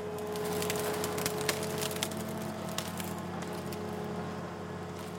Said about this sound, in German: Neben dem Rathaus schneidet eine Holzerntemaschine, ein sogenannter Harvester, mit einer Säge an einem langen Greifarm einen Ahorn ab und legt ihn auf die Straße. Der Baum reichte ursprünglich bis zum zweiten Stock.